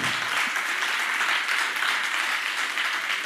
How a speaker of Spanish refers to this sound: Es la presencia del Espíritu Santo. ¿Cuántos la reconocen y cuántos le dan un aplauso a él?